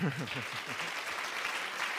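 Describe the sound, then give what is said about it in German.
Steady applause from an audience, a dense, even wash of clapping that holds for the full two seconds, with a voice briefly audible underneath at the start. “Ich bin für einen Applaus. Habt ihr einen Applaus?”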